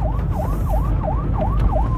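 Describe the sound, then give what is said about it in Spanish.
A police patrol car siren wails in a fast, repeating yelp, each rise and fall about a third of a second long, steady and fairly loud over a low rumble of traffic, as the patrol car with blue lights orders a driver to stop from a distance. “A las pocas cuadras, vio las luces azules de un patrullero que desde lejos lo obligaba a parar.”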